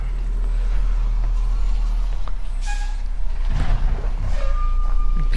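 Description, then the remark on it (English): A garbage truck idles right outside the driveway on a moist, cool morning with a heavy low engine rumble, then a sharp hiss of air brakes and clanking mechanical noises as it works. “There's our garbage truck right outside the driveway there.”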